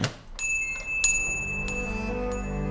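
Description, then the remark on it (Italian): A pharmacy's main door bell jingles with several quick strikes as a young woman enters, its bright metallic ring lingering and fading over a low, steady background hum. No voices are heard. “entra dalla porta principale, il cui campanello coglie l'attenzione di John”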